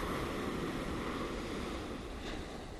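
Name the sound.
ocean waves washing ashore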